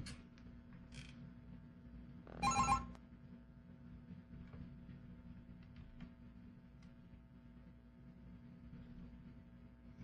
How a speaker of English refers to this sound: When the board rings, the call is already on the board. Just turn on the channel.